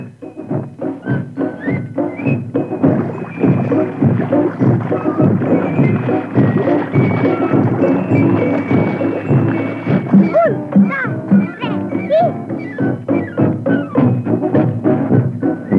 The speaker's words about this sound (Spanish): En eso estábamos cuando escuchamos a la patrulla de la selva con el coronel de dando voces y marchando hacia nosotros. La patrulla de la selva.